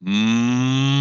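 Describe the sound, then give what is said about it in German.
A single deep, steady hum lasting about a second, voiced with closed lips in imitation of a siamang's low throat-sac boom, a sound vocalized into the throat sac. It's fairly loud, with no other sounds. “Und das produziert dann sehr tiefe Laute, die aus der Nähe gehört gar nicht so eindrucksvoll klingen.”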